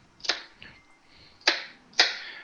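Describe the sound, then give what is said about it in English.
A knife chops through onion on a cutting board into rough half-inch hunks rather than a fine dice: three sharp, crisp thuds with short crunchy tails, spaced irregularly, plus one fainter tap early on. No one speaks. “making those cuts first, we've ended up really opening up a nice chopped onion right here with minimal chopping having to be done.”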